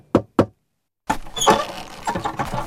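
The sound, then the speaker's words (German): Two firm, loud, energetic knocks in quick succession on an old wooden door of a low building in a dark alley near the chicken market, then a brief silence before a busier, continuous stretch of sound takes over. “eine alte Holztür in einem niedrigen Gebäude angesteuert und dort energisch geklopft.”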